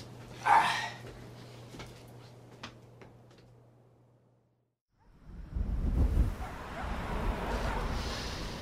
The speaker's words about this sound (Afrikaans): Ah, donderse ooswind.